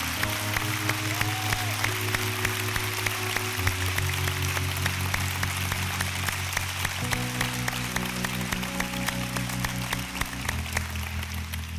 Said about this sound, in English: Now let's give these folks a big hand. Y'all can sit down.